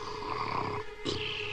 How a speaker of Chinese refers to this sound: 不到两分钟，…就打起了呼噜。